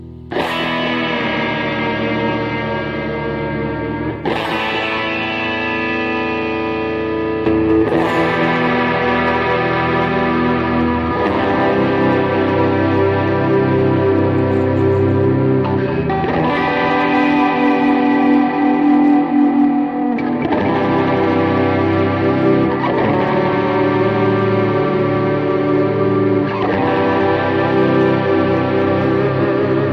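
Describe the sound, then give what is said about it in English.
Electric guitar strums sustained, effects-heavy chords with distortion, echo and reverb, changing roughly every three to four seconds at a steady, loud level with no voices. “But yeah, I'm supposed to be playing the uh-huh. guitar.”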